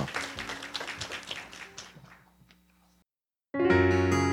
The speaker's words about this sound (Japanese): はい、じゃあ皆さん安心だということであの改めて3人に拍手いただければと思います。